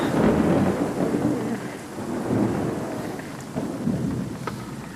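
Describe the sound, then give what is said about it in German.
A thunderstorm overhead: deep, rolling thunder rumbles in slow swells beneath a steady hiss of rain, with occasional sharper crackles. No one speaks. “Oh, das Gewitter jetzt direkt über uns, oder?”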